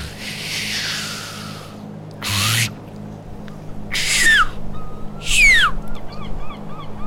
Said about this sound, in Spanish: el mire, mire lo que son esas gaviotas.